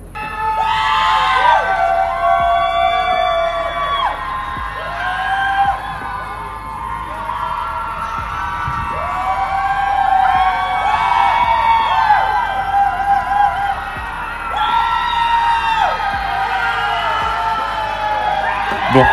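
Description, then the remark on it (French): A large crowd of students screams and whoops continuously at 10 p.m. as a nightly tradition, many overlapping voices rising and falling in long wavering cries, like a chorus of yells. “Donc tous les soirs à 22h, les étudiants hurlent.”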